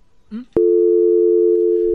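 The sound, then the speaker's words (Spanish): A brief voice sound, then a sharp click followed by a steady, loud telephone busy tone holding one unbroken pitch for about a second and a half, after the caller hung up and the call dropped. “Mira, adiós, se cayó.”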